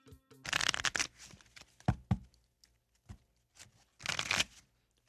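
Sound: playing cards being shuffled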